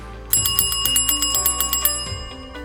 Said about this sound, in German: Na, möchtest du nochmal meine PR-Glocke hören?